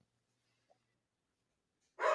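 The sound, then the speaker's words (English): A single loud dog bark breaks out abruptly at the very end, cut off mid-sound after a long stretch of near silence. “Oh, the dog, the dog agrees.”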